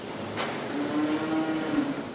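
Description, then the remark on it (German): A single cow lets out a long, steady moo that holds one pitch for over a second, heard clearly against the hum and faint background noise of a large, bright dairy barn in Tundenhausen, Rosenheim district, Germany. “Nutztiere wie Kühe hingegen werden meistens künstlich besamt. So zum Beispiel hier.”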